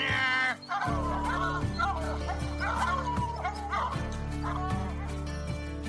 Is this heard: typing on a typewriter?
no